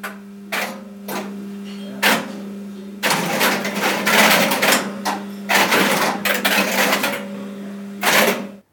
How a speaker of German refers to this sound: Gut, das klang jetzt sehr durcheinander. Das könnte auch ein Kleinkind sein, was gerade einen Bauklotz in der Kiste sucht. Äh, aber ja. das sind dann viele Relais, die ganz schnell hintereinander schalten.